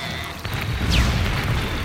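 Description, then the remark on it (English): Detonators tossed onto a ledge above go off as a deep, muffled boom, followed by a sustained low rumble and a brief descending whistle, moderately loud. “We tossed them onto the ledge above and waited for them to go off.”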